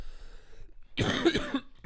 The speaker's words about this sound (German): Einmal mal kurz das Alibi-Husten, ich bin ein bisschen, alle verstanden haben. Ich bin, ich bin ein bisschen angeschlagen, wortwörtlich.